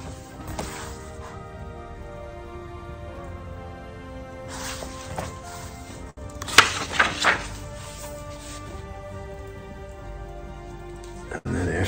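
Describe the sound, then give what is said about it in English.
Steady storm rain patters down throughout, a dense wash of drops with a few sharper, louder splashes and knocks partway through, and a heavier burst of downpour in the middle. “This storm will pass.”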